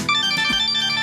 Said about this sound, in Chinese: 赵旅长，对不起，我接个电话啊